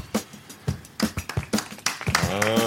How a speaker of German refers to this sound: War, so, war das jetzt so eine Ansage, wir müssen mitklatschen nochmal? Ja. Dann müssen wir jetzt gleich, machen wir nochmal klatschen kurz.